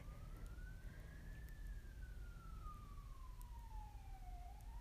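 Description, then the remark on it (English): An emergency vehicle siren wails outside, one slow rising and falling sweep, fairly quiet over a steady low rumble of traffic. No one speaks. “ooh, there's sirens outside.”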